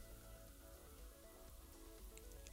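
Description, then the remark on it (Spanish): Steady rain falling continuously, a dense hiss of drops spattering on a surface with a low rumbling undertone, even in loudness, with no voices. “La lluvia parece no ceder, mientras él continúa su camino.”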